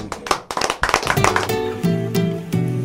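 A short burst of clapping and applause on the programme Al Mediodía con Mariotti y compañía, sharp and fairly loud, lasts about a second and a half before giving way to steady music with sustained tones.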